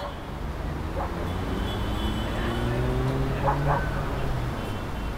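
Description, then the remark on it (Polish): A steady, low rumble of city traffic in the morning as the city wakes up, with engines droning continuously and a few faint dog barks breaking through now and then. “To był delikatny szum miasta, które właśnie budziło się ze snu.”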